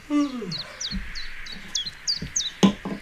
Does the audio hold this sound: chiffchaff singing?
yes